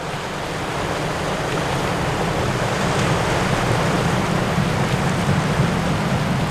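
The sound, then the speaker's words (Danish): Continuous roar of Skagerrak sea waves breaking over a reef from the west where they meet the Kattegat, a dense, steady wash of water noise without distinct pauses, loud, with no voices present. “Skagerak har hissige bølger, der slår ind over revet fra vest og brydes i mødet med Kattegat der er anderledes mildt.”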